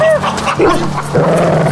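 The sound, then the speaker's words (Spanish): A dog barks and yips a few times in quick succession on a ranch very early in the morning, over a steady low background hum, with a brief whine near the start. “Era muy temprano y se podía escuchar que era un rancho. Caballos, burros, perros, todo se escuchaba.”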